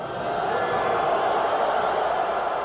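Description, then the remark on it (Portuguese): A vast stadium crowd at a Brazil versus Argentina football match boos Maradona whenever he gets the ball, in a steady, dense wall of sound. The sustained jeering din stays loud and unbroken for the whole stretch with no clear individual voices. “Maradona chamava atenção pelas vaias quando pegava na bola.”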